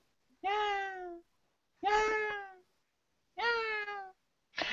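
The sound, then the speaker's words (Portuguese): A cat meows loudly and insistently, three long drawn-out cries with a fourth starting at the end, each separated by about a second of silence. “Tem um gato miando aí loucão aí.”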